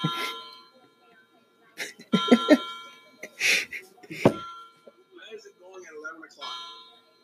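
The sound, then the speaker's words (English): A clock chimes eleven o'clock, ringing eleven times, with bright, sustained bell-like tones that ring and overlap in a slow melodic sequence, while people talk intermittently over the chiming. It chimes every hour on the hour. “Every hour on the hour, it chimes the hour that it's on.”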